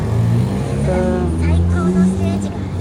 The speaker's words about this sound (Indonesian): waduh loh mobil